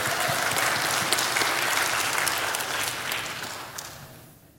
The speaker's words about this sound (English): Don't clap. Don't clap yet. Clap when I've got 100% buy in.